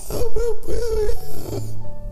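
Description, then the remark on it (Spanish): In a told Pinocchio story, a voice imitates Pinocchio, turned into a donkey and trying to call for help, with a loud, strained hee-haw bray with wavering pitch in two or three rising and falling pulls, ending in a rough, lower honking rasp. “Había un burro. Estaba tan asustado que quiso pedir ayuda y todo lo que fue capaz de decir fue”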